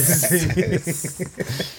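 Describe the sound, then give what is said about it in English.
A person makes a short snake-like hiss, a breathy sibilant burst near the start, followed by voiced sounds and murmuring from someone. “I'm a snake.”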